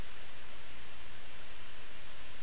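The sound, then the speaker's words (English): A computer whirs noisily in the background, a steady, unbroken hiss of fan noise that holds at an even level throughout, with no voices or other sounds over it. The computer is running with only the Voice Memos application open. “anyways sorry if you can hear something in the back that sounds like this”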